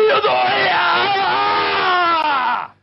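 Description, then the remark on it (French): Thierry Roland, on air, imitates a hammer thrower's cry: one long, loud, strained yell sustained for over two seconds, its pitch sliding slowly downward before cutting off abruptly. “Est-ce que vous pourriez me faire le cri du lanceur de marteau, s'il vous ah, plaît oui.”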